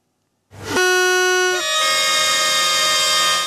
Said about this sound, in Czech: Troubení, vlajky a především nadšení. I přes deštivé počasí si dnes dopoledne návštěvníci Nového města na Moravě sportovní svátek užívali.